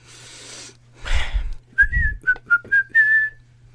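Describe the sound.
A person whistles a short, bright melody of about five quick notes, some sliding in pitch, after a brief breathy rustle, with a faint low hum underneath.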